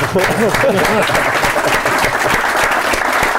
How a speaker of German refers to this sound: Deswegen, das, was wir heute machen, ist ja eine Art Unabhängigkeitserklärung. Ja, Man muss richtig. Dafür einen Applaus, das ist fantastisch.